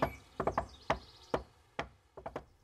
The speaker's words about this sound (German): Sie ging zur Villa kunterbunt und klopfte an. Sie klopfte den schönsten Rhythmus, den man nur klopfen kann.